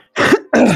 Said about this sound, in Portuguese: Ai, caralho, Puta que pariu, eu tossindo novo. Aí, passou.